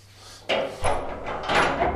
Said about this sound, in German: Die Tür ist zu.